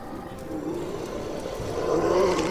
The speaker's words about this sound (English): So you guys listen as Atlas roars, and at the same time as Atlas roars, there is the ignition of an explosion.